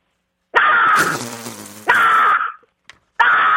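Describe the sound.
A person on a phone call imitates a crow again as an encore, with loud, harsh, raspy caws, three drawn-out squawks in quick succession, with a rougher groaning sound between the first two.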